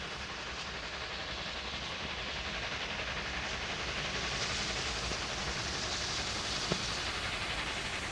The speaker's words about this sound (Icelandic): Já, en eh, við skulum byrja á því að eh, bræða okkur austur í bæ og ég eh, raunar meir en það, við förum allar leið upp á Töfrafjallið og við tökum lestin.